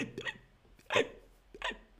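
Three sharp hiccup sounds, evenly spaced, apparently made by a voice imitating hiccups, with the middle one loudest, and short quiet gaps between them.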